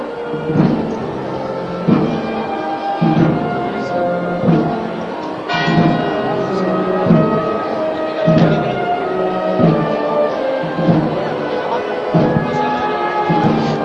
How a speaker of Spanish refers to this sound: Os había escuchado la campana de las 7 y cuarto de la tarde delante del paso del Santísimo Cristo yacente, procesionando la bandera pontificia, el guión de la hermandad y la presidencia.